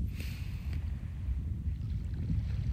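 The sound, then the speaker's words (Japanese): Steady outdoor seaside ambience at Yamanoshita Seaside Park with no one else around: low, rumbling wind buffeting the microphone over a continuous wash of waves, fairly loud and unbroken, with no voices. “山ノ下海浜公園からこんにちは！”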